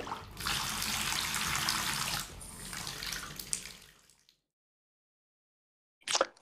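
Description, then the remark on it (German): Cold water gushes steadily from a tap into a bathtub for about four seconds, a broad rushing stream that cuts off abruptly, followed by silence and a brief splash or gurgle near the end. “Wenn ich jetzt noch ein Tröpfchen von dem kalten Wasser haben könnte”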